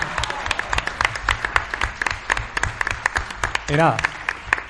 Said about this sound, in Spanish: Bueno, y lo más importante, un aplauso para vosotros, porque sin vosotros esto no hubiese sido lo mismo.